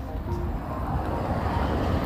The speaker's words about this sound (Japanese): あ、車が今横を通りますね。